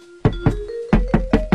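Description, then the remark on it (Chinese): Five solid knocks on the door of a little rabbit's house, a quick pair, a short pause, then three more in even rhythm, each a firm low thud, with faint steady music humming underneath. “他们来到小兔家门前，敲小兔家的门。”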